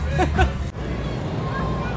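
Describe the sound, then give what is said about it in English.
Dense outdoor crowd hubbub outside the Snapdragon stadium in San Diego on a sunny day, a steady wash of many voices, with one voice briefly rising above it near the start before the murmur continues evenly. “I'm now at the stadium, the Snapdragon in San Diego. Beautiful sunny day, Old 20 odd thousand, surrounded by huge car parks, car lots they call them here.”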